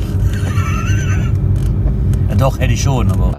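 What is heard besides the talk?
car interior noise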